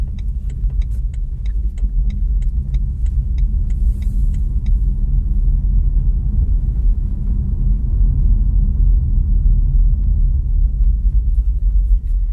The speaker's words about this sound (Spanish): Desde luego, dentro del coche no se oye prácticamente nada. O sea, eso, el roce de las ruedas, em, los intermitentes, ¿no? Que es muy curioso.